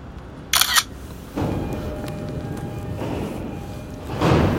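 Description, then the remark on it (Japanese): A single crisp camera shutter click, fairly loud, as a photo is taken of a vertical station-name sign at Oyama Station in Japan, followed by a steady low rumble of background noise that swells slightly toward the end. “えっ、ー、と駅名看板が ないない縦長のしかないかなあれよあの天井からねぶら下がってるやつがいいんだけどあとりあえず縦長のしかないんでこれで撮りますか”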